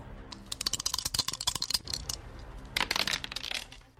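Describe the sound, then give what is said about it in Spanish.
Dice are rolled for the show El Dado, clattering across a hard surface in two quick bursts of sharp, rattling clicks, the first longer and busier, the second shorter, fairly quiet with no voices. “Así que lanzamos el dado.”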